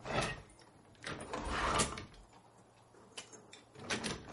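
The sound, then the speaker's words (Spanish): Several metallic clicks and clanks of padlocks being unlocked and opened on a door, with a broader rattle midway, moderately quiet, no voices. “Abre los candados de la puerta.”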